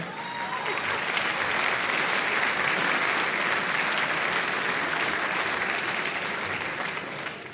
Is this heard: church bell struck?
no